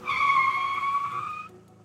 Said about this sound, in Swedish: När sällskapet passerar Södra Bankogränd kommer en bil farande och stannar med ett ryck med kofångaren några centimeter från Cornelis Vreeswijks ben.